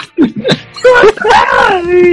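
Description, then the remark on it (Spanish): A person imitates someone screaming: a few short, choppy yelps followed by a longer, strained, wavering cry, loud. “Y empezó como a gritar.”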